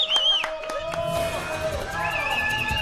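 A crowd cheers with high whistles and shouts, a few sharp claps ringing out at the start before the noisy hubbub settles into a steady, excited roar, applauding a mariachi act from Michoacán at a Telemundo party celebrating the World Cup.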